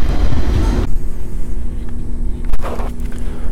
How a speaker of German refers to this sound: Okay, jetzt fährt der ICE schon ein, der wird hier wohl eingesetzt.